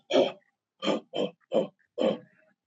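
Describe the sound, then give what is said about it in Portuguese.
A person imitates a gorilla with five short, gruff grunts, fairly loud: one alone, a brief pause, then four more in a steady rhythm. “Você vê o macaco, vê o, o, o gorila.”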